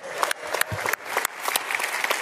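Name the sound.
round of applause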